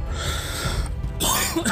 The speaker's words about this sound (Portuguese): corpo estremeceu de novo e da boca cerrada uma tosse, água e regurgito.